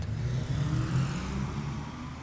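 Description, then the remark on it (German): Steady rumble of road traffic on wide, multi-lane arterial roads in Bavaria's oldest industrial area under a grey sky, with cars overtaking slow trucks and droning past continuously, a low engine hum dominating without any talking. “Auf den breiten, mehrspurigen Ausfallstraßen fahren Autos, überholen langsame Laster.”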